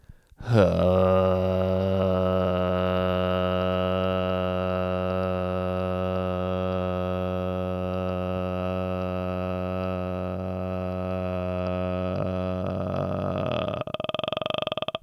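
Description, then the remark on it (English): A single voice hums one low, steady droning tone for about twelve seconds without a break, loud. The sustained note imitates a drone to demonstrate the word's meaning, then cuts off. “Number one, a deep, sustained, or monotonous sound, and the synonym is hum.”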